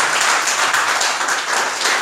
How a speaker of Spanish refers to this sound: Y si algo ha sido, ha sido el Señor de los cielos. Denle el aplauso a Cristo, por favor.